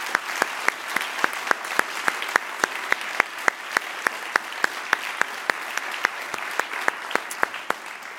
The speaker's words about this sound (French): Et vous allez rencontrer une partie de nos partenaires ce soir qui sont parrains des prix. Je vous invite à les applaudir très fort.